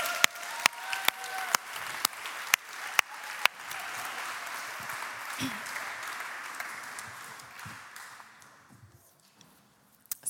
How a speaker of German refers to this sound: Ein grosser Applaus für Sie.